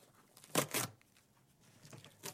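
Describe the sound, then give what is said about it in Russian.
Parcel packaging is torn open with two sharp, loud ripping bursts, then quieter rustling and a few softer tearing scrapes of paper or plastic. “Да хватит уже, не до посылок. Ладно, открою, так и быть”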